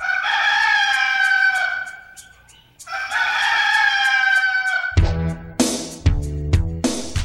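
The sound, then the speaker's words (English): A rooster crows twice in long, drawn-out calls, then a louder, harsher crow follows in choppy pulses, all loud with no talking. “The red rooster one, the first cock crowing is a little bit longer, and then there's a little bit more of a space in the red rooster theme between them.”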